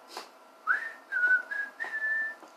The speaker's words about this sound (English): Now on to step two. Step two Sing during your chores to make them go faster. Whistle while you work.